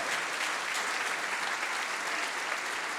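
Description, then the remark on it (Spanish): Sustained applause from a large audience after preaching, given as an 'offering' of clapping, a dense steady patter of many hands clapping at a constant level throughout, with no voices standing out. “Dele su mejor ofrenda de palmas, hombre.”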